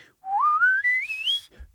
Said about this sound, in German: da wo ich mit der Zunge bin, beim Pfeifen, wenn ich unten bin wenn ich oben bin